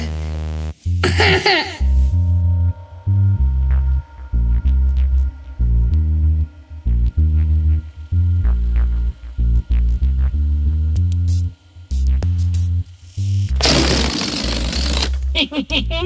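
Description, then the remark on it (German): A released balloon sputters and buzzes loudly as it deflates, its rubbery squeal wavering in pitch with choppy stops, with bursts of rushing air near the start and end. “da fliegt er wieder ¡Mal! André, puste noch mal den Ballon auf.”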